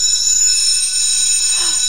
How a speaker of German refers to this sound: Und jetzt müssen wir eigentlich aufhören. Weil die, die Schulglocke hat ja geklingelt.